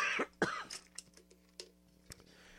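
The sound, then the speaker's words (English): A man coughs twice in quick succession, loudly, then clears his throat of something stuck in it with a few softer rasping hacks that trail off. No speech. “And I don't want to be clearing my throat in your ear constantly.”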